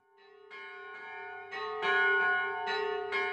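Church bells ring out in overlapping, repeated strikes, their rich tones sustaining and building in a steady peal. Fairly loud and resonant, with no voices present.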